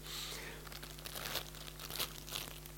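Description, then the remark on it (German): A crisp packet being crinkled and squeezed, with bursts of sharp crackling over a few seconds against a faint steady hum, and no voices. “Und das ist letztlich wie bei so einer Packung Chips. Ich hoffe, ihr mögt Chips.”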